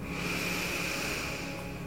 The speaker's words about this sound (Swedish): Så ta ett djupt andetag igen när du andas in låter du andetaget expandera mage, bröst och rygg.